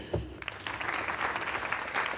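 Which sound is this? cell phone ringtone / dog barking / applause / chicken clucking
applause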